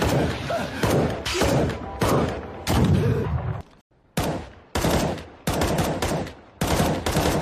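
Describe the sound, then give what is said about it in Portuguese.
Loud CS:GO video game gunfire sound effect: a rapid string of sharp, booming shots in bursts, with a brief silent pause midway before the shooting resumes, steady and punchy throughout. “roubando o tipo assim, efeito do CSGO, Não, não, mano, vai, vai mostrar agora.”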